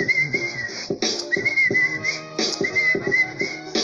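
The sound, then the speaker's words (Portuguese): Someone whistles a lively, bouncy tune in short repeated phrases, with a rhythmic backing of plucked or strummed notes underneath, fairly close and steady in loudness. “podemos assobiar, podemos cantar, podemos iluminar a sua vida nesse dia com alegria.”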